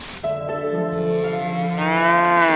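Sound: cows mooing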